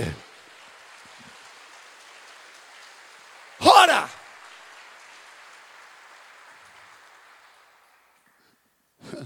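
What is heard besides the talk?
audience applause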